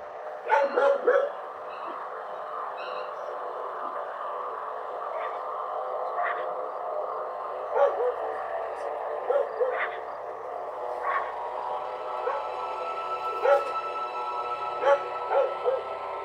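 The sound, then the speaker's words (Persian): Several dogs bark and yip in scattered bursts, a sharp cluster near the start and more at intervals later, over a steady, busy background hum that sounds somewhat like a recording. “این سگا از کجا آمدن که اینو دزدیدن از ما”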